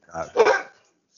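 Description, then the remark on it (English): A black Labrador dog barks twice in quick succession, fairly loud, the second bark longer and fuller than the first, followed by quiet. “It's a black lab.”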